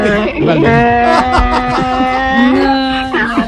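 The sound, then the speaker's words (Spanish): A loud donkey bray with harsh, wavering honks that rise and fall continuously for a few seconds, with no talking over it. “Maestro el burro.”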